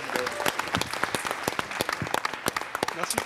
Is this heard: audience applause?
yes